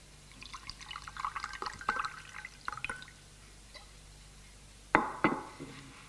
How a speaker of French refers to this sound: Pour se lever aussitôt, elle verse le café sur la table.